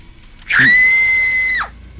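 A woman lets out one loud, piercing scream while running down the stairs, held steady for about a second before it breaks off with a short downward slide. No other sounds stand out.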